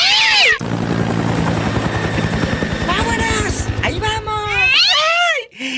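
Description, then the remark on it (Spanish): A loud helicopter rotor, on a flight to Monterrey, chops rapidly and steadily for about four seconds, with a cat meowing over it at the start, midway, and again as the rotor noise cuts off. “Y nos vamos a Monterrey en el helicóptero”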